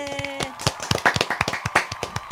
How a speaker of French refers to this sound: Je vais faire encore une fois un tonnerre d'applaudissements